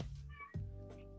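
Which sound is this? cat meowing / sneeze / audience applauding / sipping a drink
cat meowing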